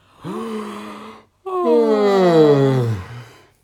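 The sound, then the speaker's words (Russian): A person yawns: a brief voiced intake, a short pause, then a long, drawn-out groaning exhale that slides downward in pitch before fading. No talking. “Надеюсь, вы зевнули с нами.”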